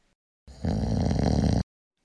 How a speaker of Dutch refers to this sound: Een snurk? Maar welke snurk? Nou, dat wisten verschillende luisteraars.